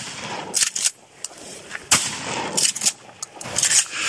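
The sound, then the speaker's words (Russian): Test shots from a gun aimed at a bottle by the water: a series of loud, sharp cracks fired at irregular intervals, each a sudden bang followed by a brief rumbling tail, with no talking. “Ну, отдача а такая нормальная.”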